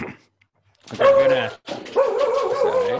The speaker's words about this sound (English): that's the dog.